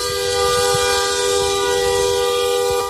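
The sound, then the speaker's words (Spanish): A car horn at a farmers' protest with tractors and cars blares in one long, steady, loud honk lasting the whole stretch, its bright harmonic tone held without a break over a low rumble of engines. “¿Por qué pitas? para que se nos oiga, que nos están matando.”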